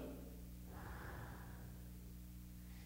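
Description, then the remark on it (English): A single forceful, passionate exhale voiced by a man imitating a breath, a breathy rush of air rising and fading over about a second against a steady low hum. “he had a passionate breathing behind it.”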